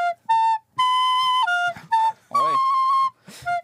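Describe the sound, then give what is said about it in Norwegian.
A short tune played on a recorder flute: about seven clear, steady notes in a narrow mid-high range, some brief and some held, one slightly wavering, played loudly with no talking. “Jeg følte at jeg kom litt dårlig ut av det med blokkfløyten.”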